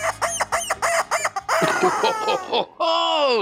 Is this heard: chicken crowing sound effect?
yes